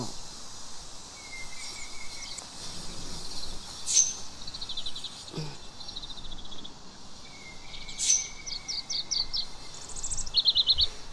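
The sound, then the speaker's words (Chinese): In a garden on one of the last hot days of summer, mostly young birds born this year, including azure-winged magpies, sparrows and magpies, chirp and tweet in repeated high, bright bursts, with quick trilled runs of notes, over a steady hiss of insects; no one speaks. “我今天发现这个园子里面基本上都是小鸟，小的灰喜鹊呀，小的麻雀呀，还有小的喜鹊。”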